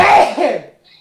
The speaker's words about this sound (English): Bless you. Sorry, the house moved slightly to the right then.